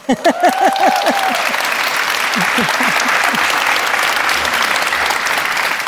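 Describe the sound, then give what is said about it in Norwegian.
A live audience at Bjørnsonhuset bursts into sustained applause, dense clapping filling the room at steady loudness, with a few whoops and cheers rising over it at the start. “Dere må gjerne fortsette med å klappe.”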